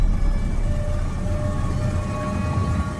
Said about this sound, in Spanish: A lo lejos se acerca el auto viejo.